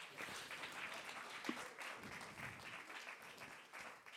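A crowd applauds steadily, many hands clapping in a dense, continuous wash of sound that holds an even level throughout, with no voices rising above it.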